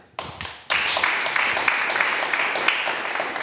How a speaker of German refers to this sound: Der Applaus vor, dem, vor der Begrüßung. Perfekt.